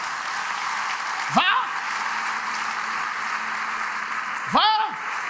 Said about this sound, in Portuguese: Quem pode dar um aplauso aqui diante do Senhor?